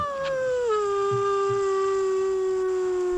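animal, dog howling

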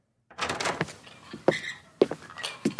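household object, door being opened

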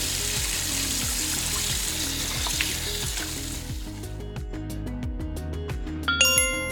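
household object, water running from tap

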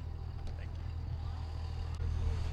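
vehicle, truck engine running

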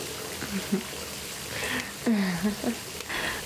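household object, shower water running

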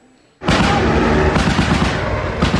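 impact, gunfire

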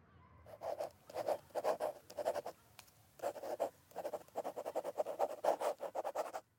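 household object, pen scratching on paper

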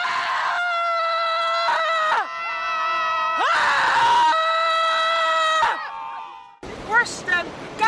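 human body sound, people screaming

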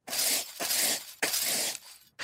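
impact, glass shattering

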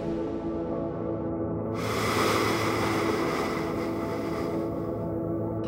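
nature, ocean waves crashing

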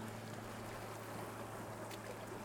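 nature, sea waves

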